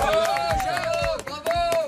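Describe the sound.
Studio audience applause on a French TV show greets the last guest to arrive, a lawyer from the Reims bar: a steady rhythm of fairly loud claps, with a sustained voice carrying over the clapping throughout.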